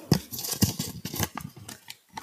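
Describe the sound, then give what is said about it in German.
The first slip of paper being unfolded during a guessing game: a couple of seconds of dry, crisp crinkling and rustling in uneven bursts, moderately loud, with no one talking over it. “Okay, jetzt öffne ich hier mal den ersten Zettel.”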